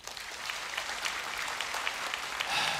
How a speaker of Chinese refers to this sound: 感谢主，给他们一个掌声。